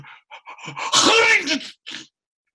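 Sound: voice imitating a sneeze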